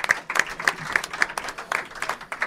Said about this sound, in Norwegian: Ja, han må få applaus, ja.